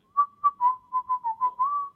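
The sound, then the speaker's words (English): A person whistles a quick, jaunty little tune of about eight short notes, each pitch bending slightly, clear with no talking, mimicking the signature whistle of the character Zartan. “I mean, he's got that stupid whistle that he does the whole time.”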